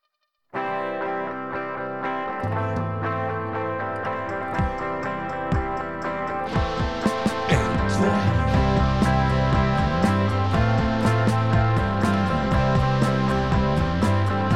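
A distorted indie rock track from a new album, with fuzzy, heavily effected guitars and steady drums kicking in partway through, dense and loud like noise-pop, with no voices.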